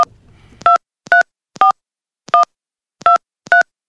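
A telephone number being dialed to call a friend: six short, clear touch-tone beeps at uneven intervals, heard alone after a brief low rustle, as if a handset were picked up first.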